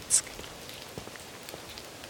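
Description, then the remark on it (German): Soft rain falls steadily on a grey day in Switzerland as a cold front with thunderstorms passes, with scattered drops ticking and pattering on a surface at irregular intervals; the sound is quiet, with no voices. “Es zieht eine kalte Front mit Gewitter über die Schweiz, immer wieder regnet es.”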